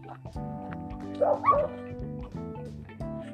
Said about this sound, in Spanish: Güey, un perro me viene persiguiendo.